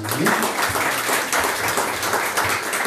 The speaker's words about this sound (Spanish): ¿Por qué no le da un fuerte aplauso al Señor en este momento?